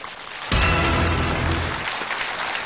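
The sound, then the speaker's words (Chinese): An audience breaks into applause to welcome director Peter Chan to give a talk: a sudden burst of dense, crackling clapping that swells and stays loud and steady, thinning slightly toward the end, with no voices. “接下来就让我们趁热打铁，掌声有请陈可辛导演开讲。”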